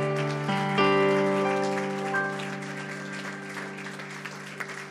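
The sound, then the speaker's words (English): A church crowd at a Monday night service claps steadily for about five seconds, giving themselves a hand for being in church, a dense patter of hands spread over sustained, held chords from a keyboard or organ, with no one speaking. “Why don't you give yourself a hand for being in church?”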